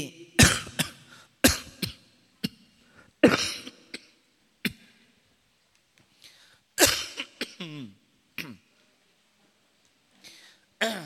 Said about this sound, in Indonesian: dimaafkan masih batuk Bapak Ibu.